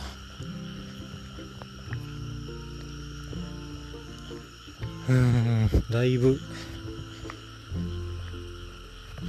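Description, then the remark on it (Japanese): A dense chorus of frogs croaks steadily across the background, a continuous layered trilling from many animals, with a man speaking over it midway; the frogs are in rice paddies beside the Imagawa river, heard while walking. “今川のそばの田んぼの近くを歩いてるんでカエルも盛大に鳴いてますねカエルも夜行性なのか”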